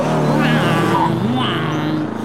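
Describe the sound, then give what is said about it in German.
A motorcycle with a helmeted rider drives past, its engine a loud, steady droning roar with shifting pitch that fades only slightly at the end. “Motorrad mit Eisenhelm.”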